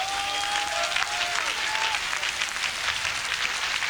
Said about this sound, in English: Clap your hands, church.